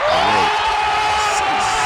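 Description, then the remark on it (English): A loud burst of crowd applause given for someone's uncle, with a sustained whoop rising over the clapping, dense, filling the whole moment without pause. “Round of applause for my uncle. Round of applause.”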